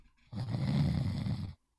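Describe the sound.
A person imitates a snore with one drawn-out, raspy rumble lasting just over a second. It is fairly loud, with silence before and after.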